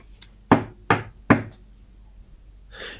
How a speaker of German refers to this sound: Auf einmal klopft es an der Tür.